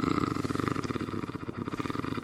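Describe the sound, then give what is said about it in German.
A person makes a steady, rumbling purr with their voice, imitating a cat, in a fast rhythmic pulse that continues fairly loud for a couple of seconds. “Ich höre mich an wie meine Katze.”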